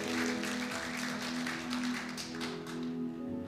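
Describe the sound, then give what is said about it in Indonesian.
An audience applauds for Jesus during a sermon, clapping steadily for several seconds, a dense wash of many hands clapping together, with a faint sustained musical tone humming underneath. “Yang setuju berikan tepuk tangan buat Tuhan Yesus.”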